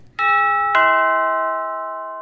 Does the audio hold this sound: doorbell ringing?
yes